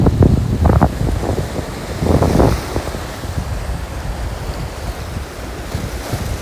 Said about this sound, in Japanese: ではこの波の音がねちゃんと取れてるといいな